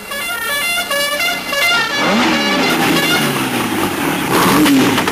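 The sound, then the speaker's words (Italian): A loud, short theme jingle: a run of bright, buzzy horn-like notes stepping in pitch, then rising engine-rev whooshes and honks crowding together to the end, with no talking. “Sigla, Sigla, sigla.”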